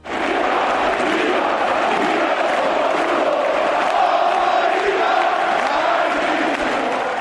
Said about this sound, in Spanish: Pese a la derrota por dos goles a cero, la afición reconoció la actuación del portero y comenzó a entonar un cántico para la historia.